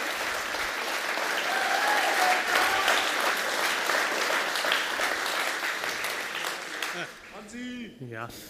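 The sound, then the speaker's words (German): A crowd applauds a Twitch streamer's community manager, steadily for about seven seconds, a loud, dense wash of many hands clapping, which thins out as a man's voice begins speaking at the end. “der auch einen Applaus verdient hat, weil ohne den würde bei mir auf Twitch nichts gehen.”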